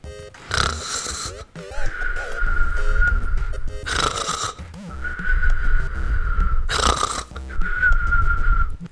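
Three rounds of loud, rasping snores, each followed by a long, thin whistling breath, in a steady alternating rhythm, likely a voice imitating a snorer.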